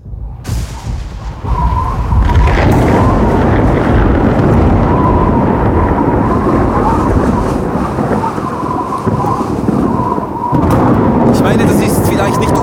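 A loud, sustained thunderstorm rumbles for the whole stretch, heavy low roaring with a howling wind-like tone on top, swelling again near the end.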